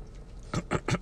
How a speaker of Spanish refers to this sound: Pero adivinen qué, permítanme darle un trago a mi café sin cortar. Mm.